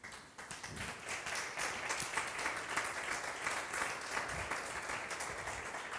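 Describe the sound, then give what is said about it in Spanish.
Sustained applause from a crowd, given for the Lord Jesus Christ, a dense, steady wash of many hands clapping for several seconds at fairly even loudness, with no speech over it. “Dale un aplauso al Señor Jesucristo, por favor.”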